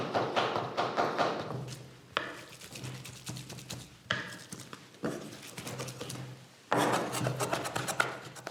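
Soft, wet patting and slapping of thyme herb butter, patted in chunks to remove excess liquid during butter making at Audley End House. A steady run of quick muffled pats with a few louder bursts and pauses between them, and no voices.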